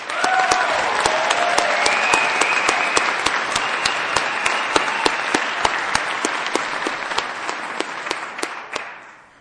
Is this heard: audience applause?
yes